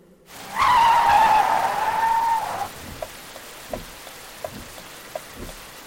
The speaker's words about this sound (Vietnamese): Chiếc ô tô màu bạc phóng qua cơn mưa nặng hạt bỗng dừng lại giữa đường.